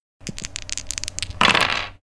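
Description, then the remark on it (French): Five dice clatter in a quick run of sharp clicks, rolled for a dexterity and larceny check in a role-playing game, ending in a brief, denser rattle as they tumble and settle on a hard surface; fairly loud, with no voices. “Tu vas me faire un jet de dextérité plus larcin, ce qui te fait 5 dés.”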